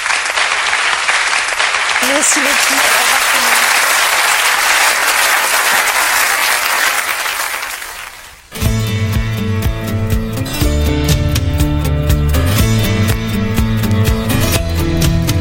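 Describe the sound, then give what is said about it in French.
During a radio programme, an audience claps loudly and steadily for about eight seconds for an invited guest as a brief spoken thanks is heard. The applause fades, then music cuts in abruptly. “On applaudit”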